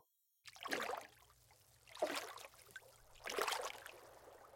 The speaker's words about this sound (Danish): Måske kan jeg bare gå over i mine nye gule gummistøvler, tænker Geo. Han begynder at gå ud i vandet.